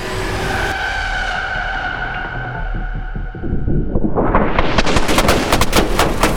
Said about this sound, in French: Les balles fusent. C'est la panique.